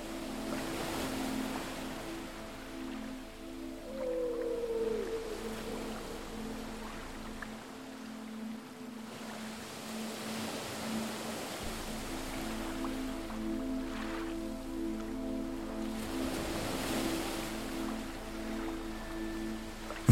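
Ocean waves wash steadily onto a deserted beach in a soft, continuous surge, with a low droning hum running underneath throughout. No voices.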